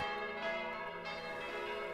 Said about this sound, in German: Zur reichen 1150-jährigen Geschichte von Schwanenkirchen gehört auch der ehemalige örtliche Braunkohlebergbau, an den die Barbara-Glocke im wohlklingend vierstimmigen Bronzegeläut erinnert.